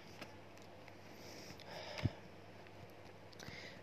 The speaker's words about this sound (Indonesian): oh ya maaf ya uh, kondisi saya kayak lagi kurang fit kayak gini jadi maaf agak kayak ada suara-suara pilk gitu suara-suara ingus.